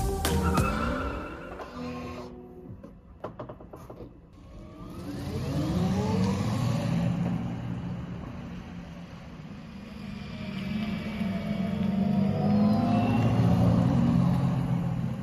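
A large, colourful electric van drives past and accelerates. Its motor whine climbs steadily in pitch over a continuous rumble of tyre and road noise, fairly loud, with no one talking.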